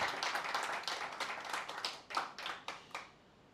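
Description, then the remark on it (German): A church audience applauds three women of the worship team with dense, overlapping handclaps that gradually thin out, leaving a few separate, sharper claps before fading away. “Und ein Applaus für diese drei wunderbaren Frauen.”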